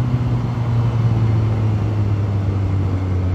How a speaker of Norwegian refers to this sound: Hva er det som skjer nå, da? Hvorfor går det så seint? Å ja, der er faktisk en moped, ja.